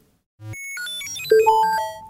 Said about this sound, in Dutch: Wanneer ik niet vermoedend op mijn werk zit, krijg ik plots telefoon.